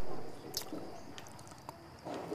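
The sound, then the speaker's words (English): A few soft sips of water with small wet slurping and swallowing sounds, spaced out over a quiet background with no talking. “So, have a little water.”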